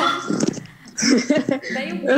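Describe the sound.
A female dog barks at home in a series of short, loud yaps as people arrive at the house, the barking coming in quick bursts with brief pauses, while a person's voice can be heard mixed in.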